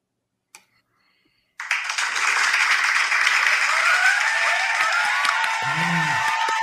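A single faint click in near silence, then loud, dense applause from fans bursts in abruptly and roars on steadily to the end, with a brief whoop rising through it near the close.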